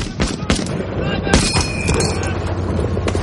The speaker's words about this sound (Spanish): Atrincherado en un socavón, Ryan vacía su cargador sobre un grupo de alemanes.